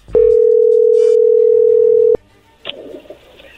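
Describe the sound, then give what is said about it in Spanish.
A steady, loud telephone dial tone before placing a call holds one unbroken pitch for about two seconds, then cuts off abruptly; faint clicks and low line noise follow. “Pues vamos a llamarle a Doris, vamos a ver si es fiel y vamos a ver si te ama como ella dice, ¿ok?”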